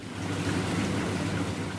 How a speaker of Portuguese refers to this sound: A água em circulação nestes 500 tanques é uma das condições para o desenvolvimento de peixes zebra. Aqui, no biotério do Instituto de Medicina Molecular, em Lisboa, no piso zero do grande edifício nas traseiras do Hospital de Santa Maria